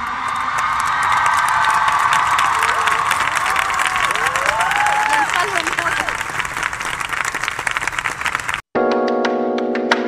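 A large crowd in Mexico applauds a performer steadily with dense clapping, cheers and rising whistled whoops, sustained for several seconds before cutting off abruptly into a short burst of sustained musical tone.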